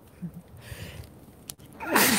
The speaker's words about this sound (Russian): Будьте здоровы. Спасибо, точно.